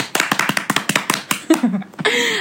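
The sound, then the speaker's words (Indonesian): Quick, crisp hand clapping, about a dozen claps in a fast steady rhythm, applauding Sonora FM's first-ever giveaway, then fading into a brief voiced whoop at the end. “Oke, semua tepuk tangan.”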